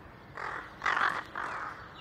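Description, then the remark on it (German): Three harsh crow caws in quick succession, the middle one loudest, from large crow flocks at the Friedrichshof, a remote place amid farm fields with wind turbines on the horizon, rising over a steady outdoor background hiss, with no voices. “Ein Horizont voller Windturbinen, große Krähenschwärme und mitten darin ein Gebäudehaufen.”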